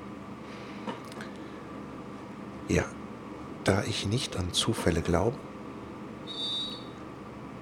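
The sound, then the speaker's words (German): A steady low rumble fills a moving train carriage, with a man talking over it in short bursts and a brief high-pitched whine near the end. “dass das genau dieselbe Strecke ist wie damals, als ich schon mal eine Episode vom Abenteuer verkaufen im Zug aufgenommen habe”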